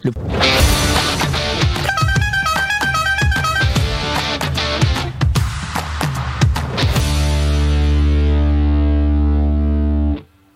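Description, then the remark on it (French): A short, loud jingle for a race-update segment, with punchy distorted electronic hits and a quick bright melodic run, ending on a sustained buzzing chord that holds for a few seconds before cutting off abruptly. “Mais avant ça, on va mettre le petit jungle, le jungle pour la Allez, le jungle pour le point course, et c'est parti”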